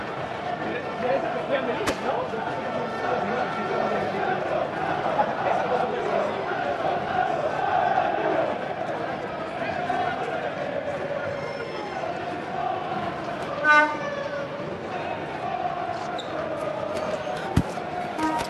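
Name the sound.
football stadium crowd ambience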